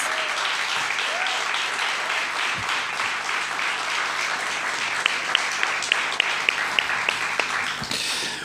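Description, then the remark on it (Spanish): An audience applauds the accompanying guitarist and percussionist with a dense wash of many hands clapping, holding a fairly even level throughout, with a few sharper individual claps standing out toward the end. “Y este aplauso es para ellos.”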